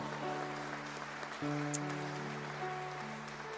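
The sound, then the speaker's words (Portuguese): A church audience applauds the Lord at the close of a sermon in a steady, continuous clatter of clapping, with sustained keyboard chords holding underneath and shifting once partway through. “Aplaude o Senhor aí no seu lugar.”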